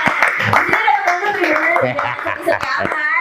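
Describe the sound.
Quick, rapid hand clapping in a steady burst of sharp claps, mixed with voices talking over it throughout.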